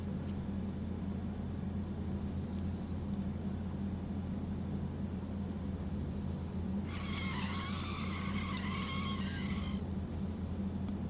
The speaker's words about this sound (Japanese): ループを脱する瞬間世界にブレーキ音が響き渡ります。